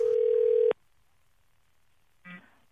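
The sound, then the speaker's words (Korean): A steady, loud telephone dial tone holds for under a second as a radio show places a call to a listener, cuts off abruptly, followed by near silence and then a brief, faint burst of sound. “한번 전화 한번 걸어보겠습니다.”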